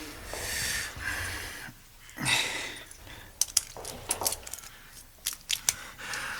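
A soft rustle, then a quick run of small sharp metallic clicks and scrapes as a small key is slid into the keyhole of a door, with no voices.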